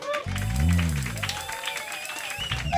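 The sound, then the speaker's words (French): A small group applauds themselves live in a studio, clapping steadily for a few seconds, moderately loud, with a voice speaking and others calling out over the applause. “C'est ça, on s'applaudit live, là.”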